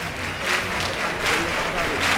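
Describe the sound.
A large crowd at the Huelva bullring claps in unison in the rhythmic Huelva style called palmas choqueras, steady bursts roughly every half second, over a continuous murmur of voices, as the bull is dragged out.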